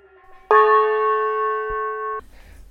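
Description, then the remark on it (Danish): A golden metal singing bowl is struck once and rings with a clear, shimmering tone that holds steady for over a second, then stops abruptly. Faint low rumbling follows. “Og der havde hun sat sådan to borde op, og det ene fyldt med sådan nogle guld skåle.”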